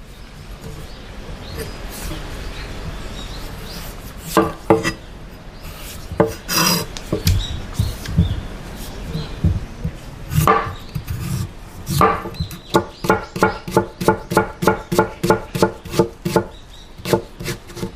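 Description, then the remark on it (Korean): A slightly blunt Korean knife chops food on a cutting board while traditional Korean food is prepared, starting with scattered, scraping cuts and building into a fast, steady run of sharp, even thwacks toward the end. “어, 도마지를 하는 소리가 나오죠.”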